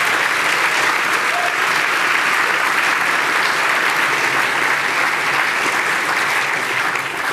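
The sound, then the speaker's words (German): A talk-show audience applauds to welcome climate expert Michael Staudinger, former director of the ZAMG, a dense, steady wash of clapping at a constant loud level for several seconds without any pause or voices on top. “Applaus”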